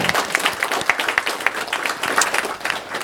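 A crowd claps and applauds steadily, a dense patter of many hands with a few sharper individual claps standing out, fairly loud throughout.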